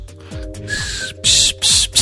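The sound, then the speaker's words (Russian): A person vocally imitates a dial-up modem handshake: low falling hoots and a steady high whistle, then two loud bursts of harsh hissing static. It has no real speech. “Ну, я хочу сказать больше, что я однажды поработал в своей жизни voice модемом.”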